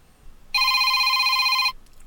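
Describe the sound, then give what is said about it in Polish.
A BlindShell Classic mobile phone ringtone plays a bright, buzzy electronic tone loudly for just over a second, then cuts off abruptly, with quiet background before and after and no talking. “To są dzwonki z e, telefonu Blind Shell Classic.”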